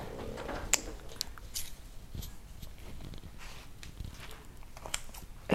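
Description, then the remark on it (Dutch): Scissors cutting through bread: a run of dry, crunchy snips and crackles at an irregular pace, moderately loud, with no talking. “zo vaak opmerkingen dat mensen het afschuwelijk vinden dat ik met een schaar, echt eh, met, met scheldwoorden en zo, dat ik met een schaar mijn brood knip.”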